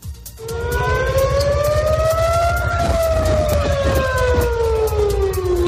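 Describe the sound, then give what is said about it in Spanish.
A loud air raid warning siren for possible missile impacts wails steadily across the city of Tel Aviv, Israel, its tone slowly rising then falling, over a rumbling background of city noise. No one speaks. “En Israel, hace pocos minutos, en la ciudad de Tel Aviv, las sirenas de advertencia han sonado por toda la ciudad.”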